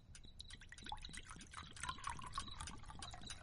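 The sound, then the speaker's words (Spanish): Water is poured in a kitchen to wash a girl's hands, splashing steadily for a few seconds with small bubbly drips and trickles, fairly quiet. No one speaks. “Aquí tienes mis manos. Vale. Te las voy a limpiar. Bueno, venga. Un poco de agua.”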